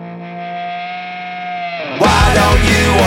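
A rock song intro: a sustained, ringing guitar note holds, then loud, heavily distorted guitars and drums crash in together, dense and driving.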